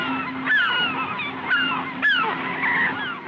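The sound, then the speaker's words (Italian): Loud, overlapping honking calls from a group of geese, repeated bursts about every half second to a second, with a steady low hum underneath and no voices. “Gli uccelli. Gli uccelli!”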